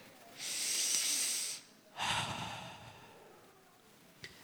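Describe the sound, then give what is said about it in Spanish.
A voice imitates breathing, representing the breath the Talmud says Moses hears: a long, airy inhale-like hiss followed after a short pause by a fuller, rushing exhale that slowly fades out, fairly loud, with no talking. “Y otros, el Talmud, que es un libro que, que se pasan los judíos de generación en generación, dicen que lo que Moisés escucha es como una respiración.”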